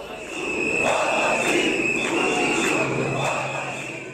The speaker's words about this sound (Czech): Takto tisíce lidí v Bělehradu jásali, když eh, organizátoři protestu vypustili eh, na baloncích zavěšenou fotku prezidenta Srbska Aleksandra Vučiče.